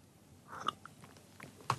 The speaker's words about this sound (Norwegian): Da drikker jeg litt mer kaffe.